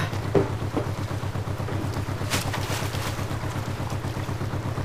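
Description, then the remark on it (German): A motorboat engine drones steadily at night with a low, pulsing throb, constant throughout, with faint clatter and water noise over the top and no voices. “Hoffentlich ist das auch das richtige Boot.”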